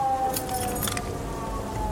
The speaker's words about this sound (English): He reached in his pocket and grabbed his keys. He slapped them in my hand.